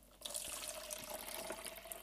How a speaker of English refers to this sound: Just going to pour that back into the jug. We'll put that back in the bowl for another use.